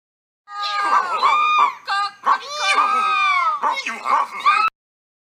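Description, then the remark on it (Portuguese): A person loudly imitates a noisy chorus of farm animals: donkey braying, dog barking, cat meowing and rooster crowing, all jumbled together in quick succession for about four seconds. “O burro relinchava, o cachorro latia, o gato miava e o galo cocoricava.”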